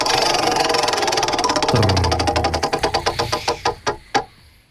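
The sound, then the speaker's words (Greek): A prize wheel spins with a rapid stream of ticking clicks that gradually slow down, the ticks spreading apart until the wheel clatters to a stop after a last few sharp clicks. “Για γύρνα τον τροχό”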